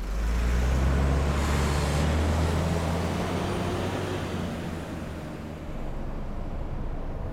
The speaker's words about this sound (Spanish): El micro traspasa campos.